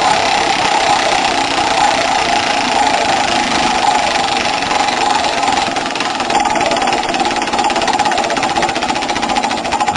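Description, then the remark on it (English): A spinning prize wheel rattles with a rapid, steady stream of loud clicks, running without a break through the whole stretch with no voices over it. “All right, you got the you got the wheel sound yep.”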